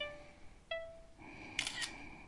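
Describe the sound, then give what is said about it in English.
A faint three-tone electronic processing chime from a phone app as it processes a photographed A4 page, with sustained tones stepping in pitch one after another and a brief clicky burst near the end; no one speaks. “Now you hear that tree tone do do. So it's processing now.”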